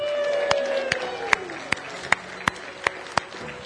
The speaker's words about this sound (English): And all of God's people said, and once again, they gave a wild cheer for the resurrected Savior.